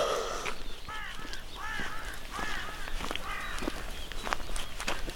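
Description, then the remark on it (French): A crow caws several times in quick succession as a pilgrim arrives, harsh repeated calls over steady outdoor background noise with occasional soft footstep-like clicks. “Et le corbeau qui avertit l'arrivée d'un pèlerin.”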